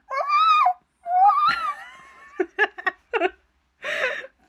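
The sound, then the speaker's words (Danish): A person imitates a Bigfoot's loud scream with high-pitched wavering wails, followed by a quick run of choppy yelps and one last hoarse cry. “og andre angiver, at væsenet udsender høje skrig.”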